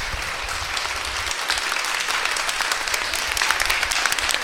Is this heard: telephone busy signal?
no